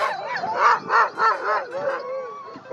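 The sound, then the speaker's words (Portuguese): Husky sled dogs of a sled race in Alaska bark and yelp in a rapid, excited chorus, several loud barks overlapping with higher whining yips, and no one speaking. “Existe uma corrida de trenóis puxadas por, pelos aqueles cachorros huskies,”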